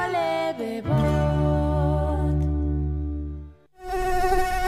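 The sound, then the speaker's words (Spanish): A loud mosquito whine drones steadily, its pitch wavering slightly, then cuts out briefly before a second burst of buzzing returns near the end. “si hoy no querés escuchar este sonido, conecta tu Fuji a las 8 de la noche y mantén alejados a los mosquitos.”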